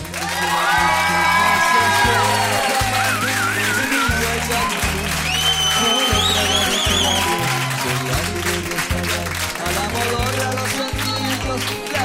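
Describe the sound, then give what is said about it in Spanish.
An audience cheers and applauds steadily for about twelve seconds as a guest artist is welcomed, with high whoops and whistles rising above the clapping and a rhythmic low thumping beat pulsing underneath throughout. “Vamos a recibir con mucho cariño”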